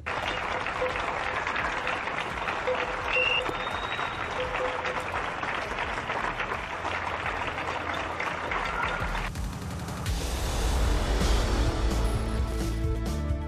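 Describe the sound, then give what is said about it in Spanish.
Sustained applause for a nurse in Spain who died of COVID-19, a dense steady clatter of many hands clapping that swells and grows fuller and louder toward the end. “Aplausos para la enfermera fallecida en España a causa del COVID-19.”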